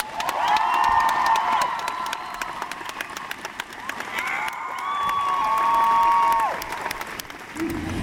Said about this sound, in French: Je vous demande de faire un tonnerre d'applaudissements à James Masters.